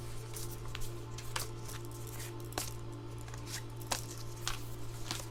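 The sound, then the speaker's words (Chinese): Tarot cards are shuffled and drawn: a soft, continuous papery rustle broken by sharp slaps and flicks at irregular intervals, over a low steady hum, with no one speaking. “好，那我们来抽牌哦。”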